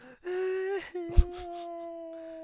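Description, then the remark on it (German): A voice lets out a drawn-out, wavering whine like exaggerated fake crying, a sustained tonal whimper with a brief breathy burst in the middle, fairly loud. “nicht weinen.”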